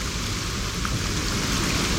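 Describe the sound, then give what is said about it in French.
Steady rain pours down in a constant, dense hiss, with a soft patter of drops on surfaces and no voices, evenly loud throughout. “se retrouvait balayée en quelques coups de cuillère à peau par deux mois de pluie ininterrompue.”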